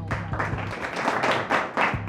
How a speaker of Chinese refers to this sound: 掌声鼓励。